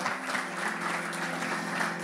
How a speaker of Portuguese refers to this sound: Conseguimos abençoar. Aplauda o Senhor, amém?